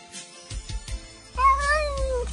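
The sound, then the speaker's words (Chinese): A single drawn-out cat meow, loud and high-pitched, wavering slightly before sliding down at the end, following a few soft low thumps; no one speaks. “小狗叫来小猫”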